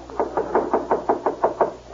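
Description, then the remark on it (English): Rapid, steady knocking on a door, about ten even raps in two seconds, moderately loud, with no voices. “Dean, Dean, answer the door.”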